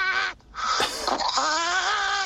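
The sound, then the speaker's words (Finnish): A phone caller imitates a bird call: a short harsh note, a brief pause, then a longer, loud, nasal cry that wavers and rises in pitch before cutting off. “Niin, niin tuli mieleen, että mikähän lintu se oli.”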